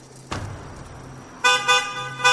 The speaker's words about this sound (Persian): به چند دقیقه نکشید یه ماشین تو فاصله ده متریمون زد کنار